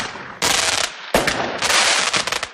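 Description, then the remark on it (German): Fireworks explode in loud, sharp bursts, one after another, with dense crackling and rapid popping that fills the gaps between the bangs. No one speaks. “Es gibt nur drei Tage im Jahr, wo man es kaufen kann, wo man es in der Hand hält, und nur einen Tag im Jahr, wo man es abbrennen kann.”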